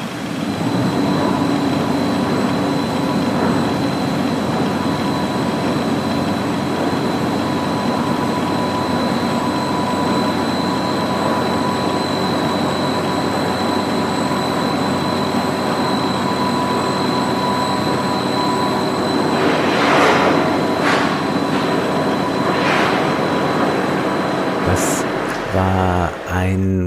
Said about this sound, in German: Das waren die Maschinengeräusche aus der Staatsoper unter den Linden, die erklungen sind, als das Orchester eben nicht ganz sang- und klanglos